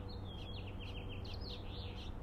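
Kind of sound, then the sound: bird, birds chirping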